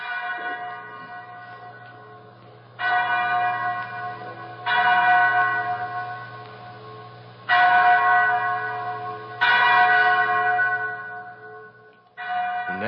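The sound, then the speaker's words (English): A chapel bell rings out in repeated, resonant strikes, roughly every two seconds, each stroke blooming and then slowly decaying into a lingering hum. It is loud, with no voices. “Mary, that's the chapel bell.”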